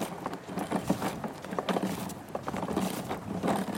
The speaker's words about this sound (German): Ja, wir bleiben sportlich in dieser Folge, denn wir feiern heute 50 Jahre Bobby Car. Das rote, robuste und sehr laute Auto ist, ja, ich möchte schon sagen, der Horror vieler Eltern